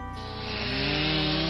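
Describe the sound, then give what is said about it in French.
A chainsaw roars, its engine revving from a low rumble into a steady, high-pitched buzz as firefighters cut through thick ice, loud and continuous with no voices. “La glace est si épaisse que les pompiers doivent utiliser des tronçonneuses.”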